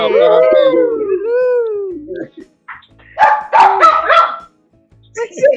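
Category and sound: animal, dog howling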